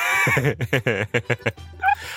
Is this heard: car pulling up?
no